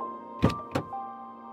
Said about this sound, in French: Un bruit de serrure me réveilla et la porte de notre voiture s'ouvrit.